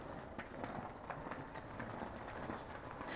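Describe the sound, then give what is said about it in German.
Footsteps of a person following someone's steps walk at a steady, even pace, each step a soft but distinct tap over a continuous low background rumble, no one speaking. “Ich folge deinen Schritten.”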